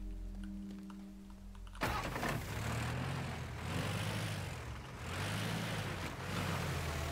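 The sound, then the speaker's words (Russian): A video game car, a 2004 model, hums steadily at idle, then abruptly roars louder and revs in repeated rising and falling surges, loud, with no talking. “Так, ладно, Первый, здесь машинка.”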